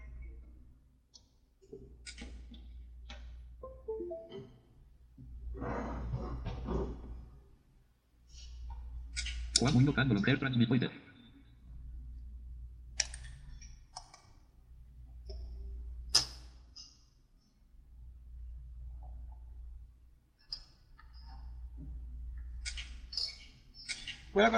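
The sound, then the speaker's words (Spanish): Handling noises: scattered sharp clicks and taps as a scanner's USB cable is plugged in, with a couple of longer rustling bursts of paper sheets being shuffled into place in the scanner's automatic document feeder, over a steady low hum. “Voy a conectar el, escáner por USB y voy a colocar las hojas en el autoalimentador para abrir el Fine Reader.”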